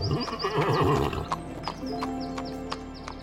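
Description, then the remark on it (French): A horse named Lapin lets out a loud, wavering whinny, then its hooves clip-clop in a steady, evenly spaced rhythm, clear, with no voices present. “Il a fallu cette photo de paysage au cours d'une randonnée dans les montagnes d'Auvergne pour qu'un enfant pas plus grand que vous, le fils de Maria, la photographe, mette au jour l'histoire fabuleuse de Lapin, le cheval le plus malin.”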